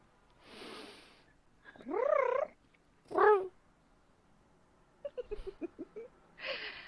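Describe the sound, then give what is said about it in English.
Cats hiding in long grass vocalize with no talking: a breathy hiss, two drawn-out rising yowls, a quick burst of chattering chirps, then another soft hiss. “This is cats hiding in the long grass.”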